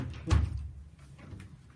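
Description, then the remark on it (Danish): A door shuts with a single dull thud, followed by a short fading rumble and quiet room noise. “spanden væk, fra døren den, den lukker.”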